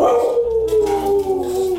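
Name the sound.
husky dog howling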